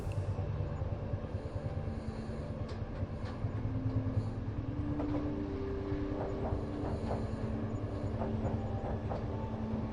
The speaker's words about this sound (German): Du spürst eine angenehme Müdigkeit in deinen Gliedern, während der Zug langsam Fahrt aufnimmt und die Nacht vor dir liegt. Die Geräusche der Abfahrt, das Klappern der Räder auf den Schienen